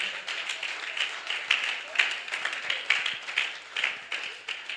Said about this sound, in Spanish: Celébrele al Señor con ese aplauso para la gloria de su nombre.